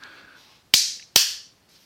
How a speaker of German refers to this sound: Was machst du? Äh, ich habe geklatscht, damit ich später den Ausschlag sehe, damit ich das, das besser finde.